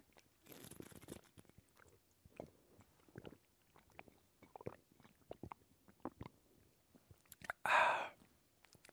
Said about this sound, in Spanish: Voy a tomar tantita agua.